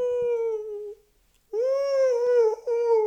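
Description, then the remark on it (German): A person imitates a howling animal with two long, sustained wailing howls, a brief pause between them, the second rising and wavering with strong harmonics. “Ich jaule.”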